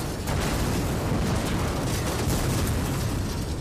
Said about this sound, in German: Gegen 8.45 Uhr löst der Zünder im Nordteil der Schule wie geplant eine gigantische Explosion aus.